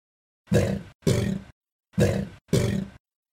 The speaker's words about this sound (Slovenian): Alligator helium tank, nekdo je to že YouTubeov. To je zdaj aligator na kisiku.